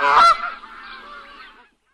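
Geese honk loudly, with a sharp burst of calls at the start that trails off into a softer, continuous honking chorus lasting under two seconds.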